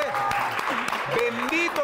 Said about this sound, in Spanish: y yo le pido a todos los que están aquí que le den un aplauso a este hombre